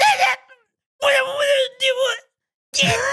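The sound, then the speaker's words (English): Voices imitate a lion's roar with a few short, strained screams in quick bursts, loud, separated by brief silences. “so it was less like a lion and more like little short little screamy noises.”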